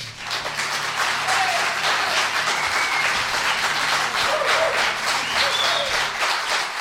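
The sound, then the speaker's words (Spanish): An audience in Logroño breaks into sustained applause, a dense, steady patter of many hands clapping at an even, fairly loud level for several seconds without anyone speaking. “Fantásticos aplauso y nosotros poco a poco vamos cerrando esta ventana al misterio.”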